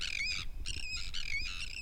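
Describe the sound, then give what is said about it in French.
Terns give a rapid series of harsh, grating calls, about four raspy bursts in quick succession, fairly loud over a low background rumble. “Il me semble que c'est des sternes, ouais.”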